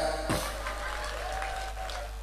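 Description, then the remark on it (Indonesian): An audience claps steadily for talkative, nagging wives, a dense, even patter of many hands at a fairly constant level throughout, with no voices standing out. “Tepuk tangan untuk para cerewet-cerewet.”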